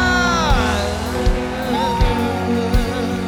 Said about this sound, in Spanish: Y tu que se oiga ese grito de celebración. Aleluya.